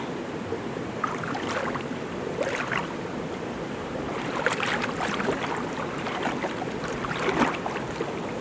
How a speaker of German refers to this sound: Es hat hier mehrere Becken und das Wasser fließt von Becken zu Becken, bis es dann am Schluss im Fluss landet.